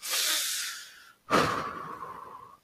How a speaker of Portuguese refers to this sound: Eu tento fazer, eu tento fazer respiração profunda